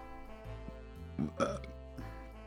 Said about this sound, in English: My burps taste like blueberry.